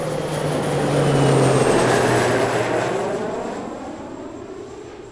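A loud airplane engine roars in flight, a broad steady rush with a droning tone that slowly drops in pitch, swelling early and easing off slightly toward the end. No one speaks.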